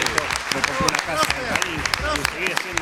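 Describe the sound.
An audience applauds a guest on an Urbana Play broadcast with steady, dense clapping for about three seconds, while voices talk and call out over the applause at a moderate level.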